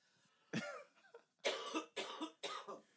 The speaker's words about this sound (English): Excuse me, I have to cough.